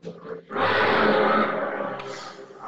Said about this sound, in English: What the, What was that? A lion or something? I was a, I don't know. Some motorbike. Wow, it sounded like an animal or something roaring.